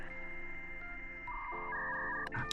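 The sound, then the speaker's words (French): A 56K dial-up modem connection sequence: steady electronic tones that shift pitch in steps, ending in brief harsh, static-like bursts. It is fairly loud, and there is no talking. “Où est-ce qu'il est mon modem 56K que j'aime bien Modem T'es où, modem Modem Oui Oui, patron, je suis là Oui, c'est moi, c'est le modem Très bien”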